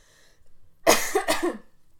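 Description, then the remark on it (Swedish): A smoker's cough: two harsh, raspy bursts in quick succession, the second slightly longer, standing alone against near silence. “Nu är det rökhosta, eller vad heter det?”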